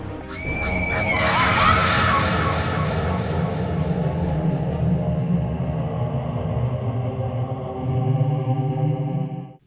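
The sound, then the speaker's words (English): A shrill, wavering scream rises near the start over a loud, dense droning rumble that holds steady for about ten seconds before cutting off abruptly. “Give a sinister scream for your host”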